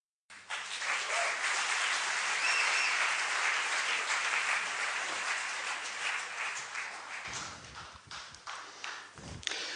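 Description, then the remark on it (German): A room full of people claps steadily for several seconds for the technical director who operated the presenter, a dense wash of applause that thins out toward the end into scattered individual claps. “Bitte noch einen Applaus für den TD, der musste nämlich auch noch den Presenter hier bedienen.”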